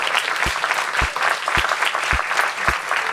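A steady burst of audience applause, dense clapping sustained at an even loudness for a few seconds, with some heavier low thumps recurring at regular intervals underneath.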